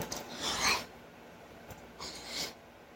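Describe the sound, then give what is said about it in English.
Two sharp, raspy inhales, likely drawn through the nose, taken while eating and taking a bite, separated by a short pause. Each is a brief hissing rush of air with no talking. “I inhaled while I took that bite.”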